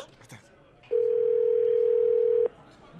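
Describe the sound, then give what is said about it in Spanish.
A phone rings on an outgoing call placed again to two young women: one steady, mid-pitched ringback tone holds for about a second and a half, then cuts off, with only faint background noise around it. “Vamos a marcar otra vez a las dos chamacas que se dejaron de hablar porque una de ellas no llevó la comida para la fiesta el fin de semana pasado.”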